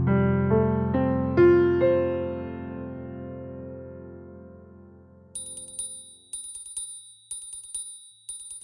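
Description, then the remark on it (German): A few sustained musical tones fade out, then a bell alarm clock rings in the morning in four short, rapid, bright metallic bursts, with brief pauses between them. “In der Früh läutete ein Glockenwecker”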